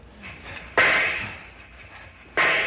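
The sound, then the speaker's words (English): Two sharp, loud gunshots about a second and a half apart, fired to shoot the lock off a hand car shed, each a sudden bang followed by a short ringing decay, with no talking. “Stand back while I shoot the lock off.”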